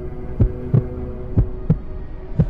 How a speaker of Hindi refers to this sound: मेरा दिल इतने जोर से धड़क रहा था मानो बाहर निकल जाएगा